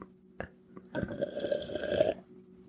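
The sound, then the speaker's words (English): A couple of small clicks, then a drawn-out, noisy slurp of a sip lasting just over a second, with a raspy, throaty edge; no one talks. “I need another sip of this.”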